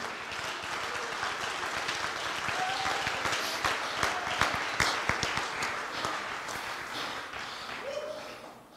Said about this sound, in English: Somebody clap your hands into the Lord.